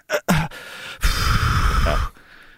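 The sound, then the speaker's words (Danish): A voice imitates a drunk man's heavy breathing: a sharp gasp, then a long, deep, rasping exhale lasting about a second, fairly loud, with no words spoken. “Det, den der med at lave den der meget dybe vejrtrækning, og så sige ting, men man aldrig får afsluttet med, ja, det”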